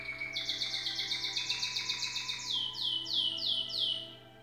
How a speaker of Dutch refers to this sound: Misschien heb je het al gehoord. Het prachtige fluit van het vogeltje op de achtergrond. Die behoort niet tot de muziek die opstaat, maar het is het vogeltje dat bij ons in huis is,